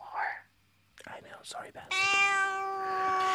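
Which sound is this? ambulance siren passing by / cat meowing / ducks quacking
cat meowing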